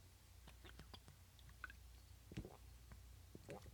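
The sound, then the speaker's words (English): Quiet mouth sounds of someone sipping an amber ale beer from a Milwaukee brewery: soft wet clicks and smacks scattered throughout, with a slightly louder slurp and swallow midway, over a low steady hum. “Okay, it's an amber ale. I'm going to take a little sip and get back to you.”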